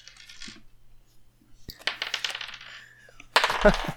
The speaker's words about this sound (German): wir würfeln mal Initiative.